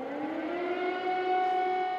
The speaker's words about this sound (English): And I just remember, I remember the curfews and uh, I remember the streets being empty. And then the environment would be punctuated by air raid sirens.